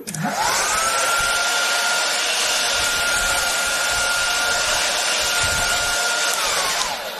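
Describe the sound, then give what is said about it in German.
A hair dryer, used to warm a chocolate mold before chocolate is poured in, whirs up to speed, blows with a steady loud rushing hiss and a constant motor whine for several seconds, then winds down as it switches off. No one speaks. “Ja, das ist ein richtiger Föhn.”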